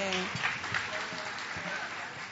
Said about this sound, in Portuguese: salva de palmas para eles, por favor.